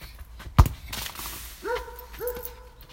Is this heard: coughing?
no